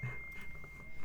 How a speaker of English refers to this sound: I, am sorry about that ping. That was my phone.